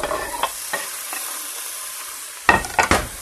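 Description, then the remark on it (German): Tomatoes simmer and sizzle steadily in a pan while a utensil scrapes and stirs them, with a few louder clattering strokes toward the end. No voices. “Aber äh, das kocht ja einen Augenblick noch.”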